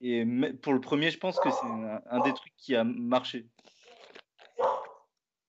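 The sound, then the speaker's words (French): A man talks for a few seconds, then a dog's soft crunching, chewing noises come through in short irregular bursts, with a brief snuffly sound near the end. “C'est quoi ce bruit euh, C'est mon chien.”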